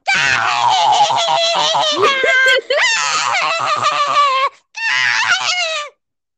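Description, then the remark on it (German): A person imitates a schoolboy's loud, honking laugh that sounds almost like a goose, delivered in three long, strained bursts separated by brief gaps. “Und sein Lachen hört sich ungefähr so an.”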